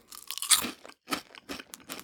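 Someone crunches on colorful puffed rice balls: a series of crisp, crackly bites in an uneven rhythm, with short pauses between them and no talking.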